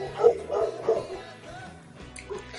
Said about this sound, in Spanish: Perritos los perros. Míos son. Por mi casa están ladrando, voy a sentir el del micro. Ah, ya. Es, que mi, es que mi vecino deja sus perros en la calle y luego dice, no, no sé nada.